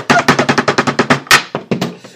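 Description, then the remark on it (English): A bottle gets knocked over: a quick, rattling run of sharp clattering knocks, then one louder clank and a few final taps as it settles. No talking. “Oh no, I knocked the- your. It's that bottle.”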